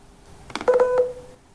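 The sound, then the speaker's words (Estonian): Morse code letter A sounded as an electronic beep, a short blip followed by a longer steady mid-pitched tone, fairly loud against a quiet background, with no talking. “ja igal tähel on oma kombinatsioon pikkadest ja lühikestest äh, helidest.”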